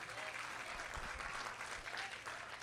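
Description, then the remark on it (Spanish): An audience breaks into steady applause in response to a preacher's message on prayer, a dense, continuous patter of many hands clapping at an even level throughout, with a few voices mixed in underneath. “Alguien le da un aplauso, alguien que lo esté entendiendo.”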